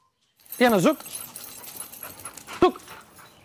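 A female pitbull, Diana, in Miami-Dade County pants in breathy bursts against a steady hiss. A brief whiny vocal sound stands out near the start, followed later by a second short one.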